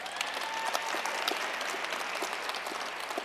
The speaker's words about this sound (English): They're clapping for me here. Um, I'm working with the legislature, you said, to implement common sense background checks on all firearm sales in Nevada. Great applause line. Go ahead, applaud.